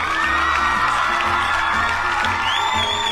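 A crowd cheering and clapping sound effect: the crowd cheers loudly and steadily for about three seconds, with whoops and high shouts rising over a dense roar and some clapping mixed in.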